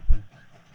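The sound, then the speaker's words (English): A short burst of low, heavy rumbling from a passing train on the tracks, fading quickly into a faint, steady hiss of background noise. No voices. “The train isn't how it was a second ago.”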